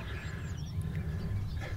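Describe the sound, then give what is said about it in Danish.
Hens cluck softly in a steady, busy murmur over a low background rumble, with a few faint higher chirps mixed in. “Det er høns. Ja. Derfor gokker de.”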